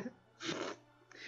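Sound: a sneeze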